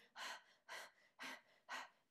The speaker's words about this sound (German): wenn der Körper sich irgendwie zusammenzieht und wir eher so ein Gefühl haben von Bedrängnis oder von Unsicherheit in uns hinein, dann atmen wir so.